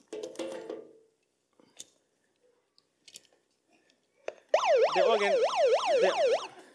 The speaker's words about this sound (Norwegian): Det er òg en sånn innebygget sirene, så hvis jeg ikke får det som jeg trenger med en gang, så kan jeg skru på den.